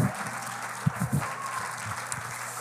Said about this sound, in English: Would you clap your hands one more time to the Lord and give him praise this morning?